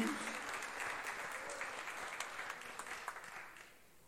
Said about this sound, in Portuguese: Aplauda Ele em nome de Jesus.